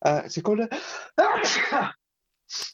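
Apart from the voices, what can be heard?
sneeze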